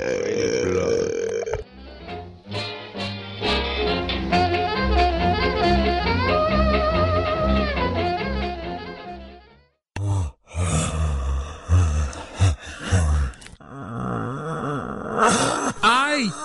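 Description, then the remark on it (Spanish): After several seconds of music, a burst of zombie groaning sound effect on Radio Zombie Merida takes over: guttural, gurgling moans and growls rising and falling in repeated loud bursts. “Ya se escaparon los zombies. Ponles música para que se calmen.”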